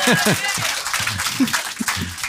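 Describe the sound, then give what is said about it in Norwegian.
Steady applause from an audience, a dense crackle of many hands clapping, with a voice talking over it the whole time. “Ok, gi applaus”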